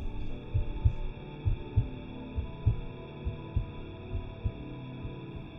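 A muffled heartbeat thumps steadily in low, soft double beats, repeating about once a second over a faint, constant background hum.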